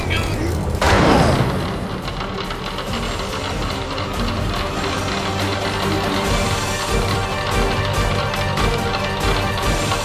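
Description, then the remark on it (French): A heavy steel airlock door is slammed shut by two people with one loud, booming impact near the start, its echo fading into a steady low rumbling background that continues to the end. “Dimitri et Jason claquèrent la lourde porte d'acier”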